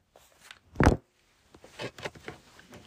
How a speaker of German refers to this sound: Ich befinde mich im Gästehaus Gisela und jetzt klopft es an der Tür. Ich muss einmal kurz öffnen und gucken, was passiert.